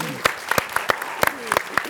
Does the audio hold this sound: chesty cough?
no